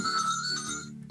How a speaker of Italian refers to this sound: oh, suonano i telefoni. Vabbè. Si sente il telefono che suona? Eh, sì, si sente, è un cliente che se ne sta andando perso per sempre